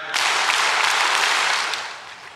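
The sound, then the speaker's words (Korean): An audience claps five times on a leader's count, in a sudden, dense burst of applause, a loud rattling wash of many hands that holds steady for about two seconds and then tapers off, with no talking. “자, 치라는 만큼 쳐보세요, 숫자. 박수 다섯 번 시작!”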